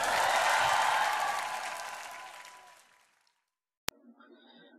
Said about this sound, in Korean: 주신 하나님께 승리의 하나님께 큰 박수를 한 번 올려드립시다.